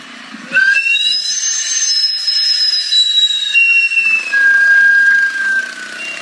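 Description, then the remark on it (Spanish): A sweet potato vendor cart's steam whistle shrieks loudly and continuously for several seconds, a piercing, wavering high tone that drops slightly in pitch toward the end, with no voices. “¿Crees que pueda grabar el sonido de los camotes para hacer una canción?”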